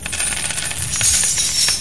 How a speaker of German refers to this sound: Das Klingeln und Klimpern wird lauter.